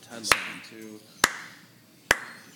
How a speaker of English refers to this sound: yeah, that's me clapping